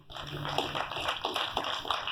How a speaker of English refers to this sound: I'll tell him you clap for him.